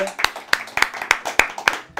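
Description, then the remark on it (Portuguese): A short burst of applause for a special guest: roughly seven sharp, bright hand claps in a steady, evenly spaced rhythm, fairly loud and crisp, lasting about two seconds. “Temos aqui um ilustre convidado, vou pedir uma salva de palmas para ele”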